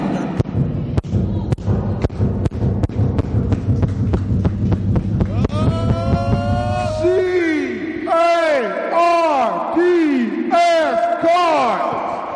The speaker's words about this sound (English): We're gonna do the fight song. We're gonna do the uh, U of L cheer. Are we gonna do cheer real quick?